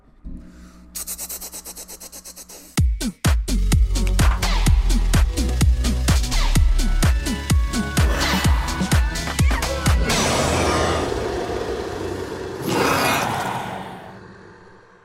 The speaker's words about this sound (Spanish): Hasta un sonido de disparo.